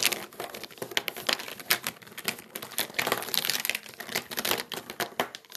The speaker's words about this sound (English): Like, Listen, listen to this, guys, okay? This is the sound of Copic markers.